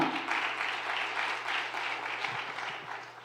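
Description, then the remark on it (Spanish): An audience claps for the Lord together in a steady, dense wash of applause that holds at an even level for a few seconds, with a low steady hum underneath and no voices. “Y le dan un aplauso fuerte al Señor.”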